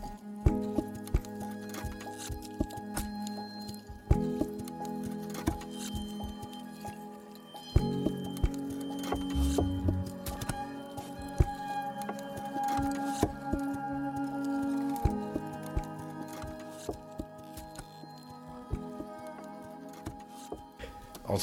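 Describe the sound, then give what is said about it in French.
A music track of sustained, layered string tones with irregular, crisp clicks scattered throughout like small footsteps or patter, moderately loud and steady over the whole stretch, with no voices. “des petits bruits là comme ça, ça me rappelle beaucoup ça. Et l'incertitude, tu vois, avec les cordes comme ça.”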